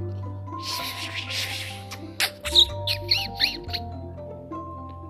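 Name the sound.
mouse squeaking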